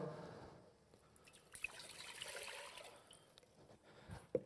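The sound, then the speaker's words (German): Water runs and splashes steadily into a cooking pot for a few seconds, for making a Russian potato salad, a soft continuous hiss with small drips and a clank near the end, with no talking. “Und wenn meine Mama diesen Kartoffelsalat macht, dann brauchen wir dafür einen Topf. Hier geblieben. Wir brauchen Wasser.”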